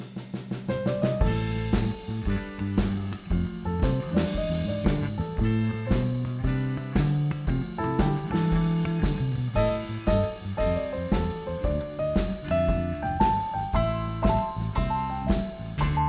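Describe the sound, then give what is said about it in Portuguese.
An upbeat instrumental closing jingle plays on its own with steady rhythmic hits and bright melodic notes, loud and continuous with no voices, rising toward a higher melody near the end. “Chegamos ao final. Vinheta.”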